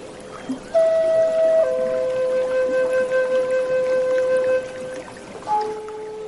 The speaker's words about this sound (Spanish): Escucha este fondo musical.